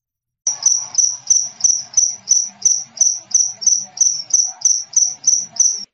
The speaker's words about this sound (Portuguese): Agora a gente vai escutar alguns sons. Vamos começar com o mais comum, o dos grilos.